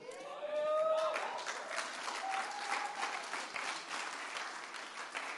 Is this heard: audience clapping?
yes